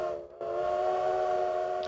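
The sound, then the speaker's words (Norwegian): A steam locomotive whistle blows loud and steady, a sustained harmonic tone held nearly two seconds after a brief dip at the start, with no voices present. “Der man før hadde enkle grusveier med hest og kjerre, hadde man nå jernhester som kunne trekke titalls tonn med gods og flere hundretalls passasjerer i svimlende hastigheter på opptil 50 km i timen.”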